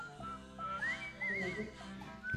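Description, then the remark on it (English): Someone whistles a wandering, sliding melody in clear, bright tones, heard over a dense, steady musical backing for a couple of seconds. “Here's our Whistler boys.”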